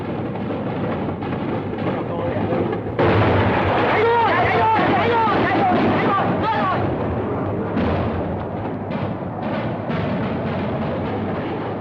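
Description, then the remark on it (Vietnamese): Heavy artillery fire and explosions rumble in a dense, continuous barrage as an American plane is shot down and crashes, swelling louder a few seconds in, with voices heard faintly through the din. “một vệt sáng nhoáng lao xuống đất và một cột khói đen rất đen bùng từ mặt đất lên thành hình một cái nấm to bên cạnh những làn khói trắng khác và có ánh lửa bùng đỏ trong lần có đen đó chiếc máy bay mỹ vừa rồi đã bị đen rồi”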